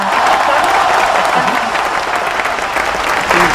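An audience on the program Famosos entre nosotros claps steadily for a guest, a dense wash of many hands applauding at an even, sustained loudness with no pauses.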